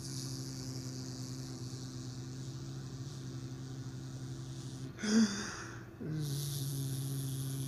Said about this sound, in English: I'm so high I forgot the air conditioner was on until I just looked at it. See, I already got immune to the sound.